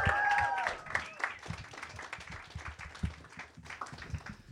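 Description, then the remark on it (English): An audience applauds the poet Robert Gibbons after his reading, with a dense, crackling patter of many hands clapping, a few whistles and cheers rising in the first second before the clapping carries on steadily at moderate volume. “Keep it going for Robert Gibbons.”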